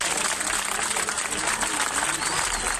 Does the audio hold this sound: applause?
yes